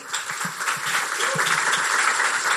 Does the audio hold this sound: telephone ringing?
no